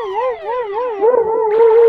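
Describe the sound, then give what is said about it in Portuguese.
A police siren wails in a steady, rising-and-falling warble, loud, with a burst of added noise near the end of the short sound effect. “É, to toca a sirene, Brasil. É, polícia do clubismo.”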